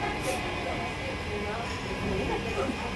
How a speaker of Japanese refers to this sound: うるさいな工事してんのが